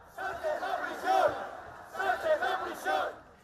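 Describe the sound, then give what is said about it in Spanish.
An anti-amnesty protest crowd shouts in unison in front of the PSOE headquarters on Calle Ferraz in Madrid, Spain: two swelling waves of chanting voices rising and falling with a loud, ragged, rhythmic cadence. “Estos son gritos recogidos en Madrid frente a la sede del PSOE y, por cierto, con Esperanza Aguirre como protagonista intentando cortar el tráfico en la calle Ferraz.”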